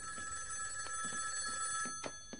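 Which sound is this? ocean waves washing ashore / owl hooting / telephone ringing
telephone ringing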